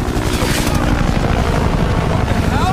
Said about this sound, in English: And out of nowhere, this, this Apache helicopter comes in